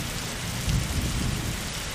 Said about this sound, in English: Uh, yeah, there's a very sudden storm. Hold on! Okay. Yeah, I had to get undercover. It was just like it was a sunny day and then dark unnatural sky and downpouring rain and thunder.